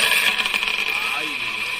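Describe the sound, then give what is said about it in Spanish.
A short burst of small divination shells tossed for a horoscope reading, rattling together, a quick coin-like clatter in the first half-second, set against a steady hiss of background noise. “Voy a tirar los caracoles.”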